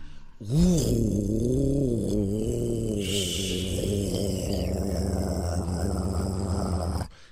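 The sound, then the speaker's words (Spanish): A grey Lamborghini Huracán Performance sports car, number 6, revs hard, its deep, growling roar swooping up and down in pitch before settling into a steady, rumbling idle that cuts off abruptly. “Era número 6 acelera con un Lamborghini Huracán Performance.”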